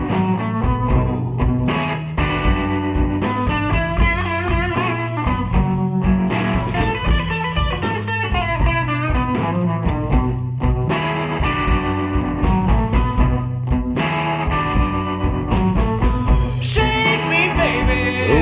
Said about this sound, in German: Uh, könnte man mal reinhören, ne? Ja, Rhythm and Blues, Rock and Roll, Boogie. Boogie. Oh yeah.